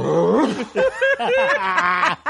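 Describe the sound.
A person imitates an animal growl with a run of loud, gravelly voiced bursts that rise and fall in pitch, continuous for about two seconds with brief gaps.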